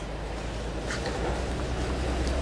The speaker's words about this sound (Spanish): Aquí como que pasó un camión muy cerca y no te alcancé a escuchar.